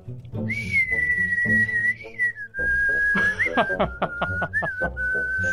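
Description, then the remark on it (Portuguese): A person whistles a sustained, bird-like melody with wavering pitch and quick chirping trills, loud, over a steady low background hum. “Quando começou a tocar som de passarinho, eu falei, não, é um assovio, velho.”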